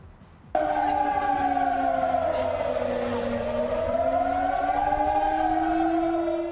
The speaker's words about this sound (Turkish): Sirenler çaldı, tansiyon yükseldi.